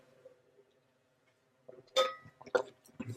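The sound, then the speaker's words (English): A few bright glass clinks ring out after a quiet stretch as someone takes a last sip of water, sharp tonal taps with a short ring, followed by softer knocks and handling sounds as a glass is set down. “That was my last sip of water, so I, I gotta go soon because my mouth's gonna get dry after this sip of water is has taken its course.”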